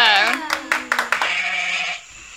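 A goat bleats in one long, wavering, nasal cry lasting about two seconds, fairly loud, with a few sharp claps or taps breaking through partway.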